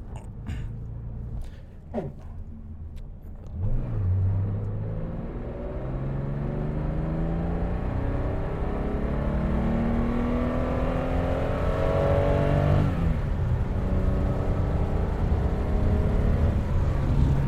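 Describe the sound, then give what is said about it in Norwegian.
A 2.2-litre car engine revs hard at full throttle, its rising harmonic whine climbing steadily as it accelerates, loud throughout with a brief gear change partway through. “2,2 liter i fullt øs.”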